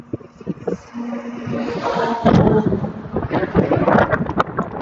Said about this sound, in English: Well, it's windy anyway, so God knows how much of that podcast will actually be audible.